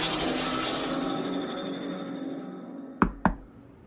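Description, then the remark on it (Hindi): A secretary knocks twice on an office door, two sharp, distinct knocks in quick succession after a sustained rumbling ambient drone fades away. “तभी मैंने एक नॉक सुनी और मुड़कर देखा तो मेरी सेक्रेटरी खड़ी थी”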